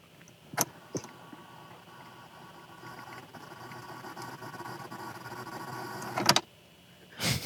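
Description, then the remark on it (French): A cassette player clicks twice, then a steady mechanical whir of the tape rewinding runs for several seconds, stops with a clunk, and the cassette is handled and flipped over to its other side with a rattling clatter. “On va faire un petit rewind. Je change la cassette de côté.”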